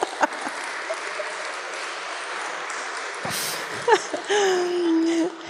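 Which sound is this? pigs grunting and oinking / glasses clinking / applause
applause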